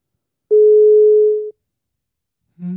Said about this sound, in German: geht keiner dran. Es geht keiner ans Telefon.